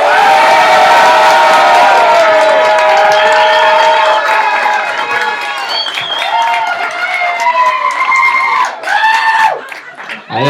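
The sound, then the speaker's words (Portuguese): A loud live audience shouts and cheers together, many overlapping voices yelling and whooping, sustained for the whole stretch with a brief dip near the end, making noise to vote for a film and the historical figure Eli Brown. “Escolhe um e solta a voz, certo?”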